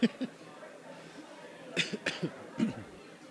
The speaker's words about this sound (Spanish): perdón, perdón, perdón, perdón, perdón por la tos. Ya no, ya, no me la podía aguantar más.